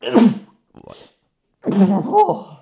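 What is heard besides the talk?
repeated sneezing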